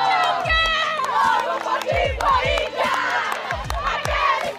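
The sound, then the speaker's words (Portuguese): A large crowd in Itaquera shouts and roars loudly and continuously, with rhythmic chanting voices and thumping drum-like beats pulsing underneath, dense throughout. “Mas eu tô ouvindo um grito forte vindo de Taquera! de novo!”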